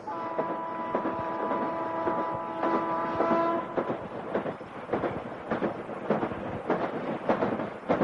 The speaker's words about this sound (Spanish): Al día siguiente el tren continúa su trayecto.